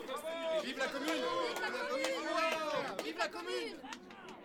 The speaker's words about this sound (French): À l'issue du scrutin, le président du comité de vigilance, Jean-Baptiste Clément, énumère les noms des élus, puis la séance est levée dans les acclamations du public.